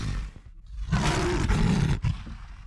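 A lion roars once, loud, a rough, rumbling bellow lasting about a second after a low growling lead-in, then tapering into a quieter rumble. No one speaks.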